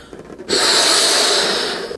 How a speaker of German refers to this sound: Jetzt äh, geht es noch an die Luftballons. Da wird gerade ein großer roter Luftballon aufgepustet.